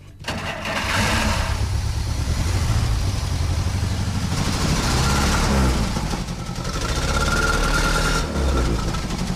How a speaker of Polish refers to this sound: Największą satysfakcją dla nas jest, jak w cudzysłowie mówiąc, auta zagadają, czyli po całej rekonstrukcji, po odbudowie ten silnik rusza.